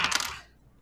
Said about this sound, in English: Um, just roll me two d six.